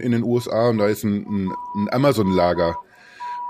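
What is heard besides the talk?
ambulance siren passing outside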